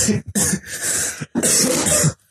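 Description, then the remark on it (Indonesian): A series of harsh, raspy coughs: a couple of quick short hacks, then longer rough, throaty coughing bursts with brief pauses between them, loud and with no talking. “sangat batuk batuk”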